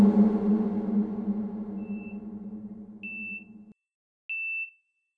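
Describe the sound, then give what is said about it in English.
A heart monitor beeps, a faint tone followed by two clear, high electronic beeps spaced evenly apart, the first ones over a low droning rumble that stops abruptly, leaving the last beep alone. “Laris, the first thing you hear is the heart monitor.”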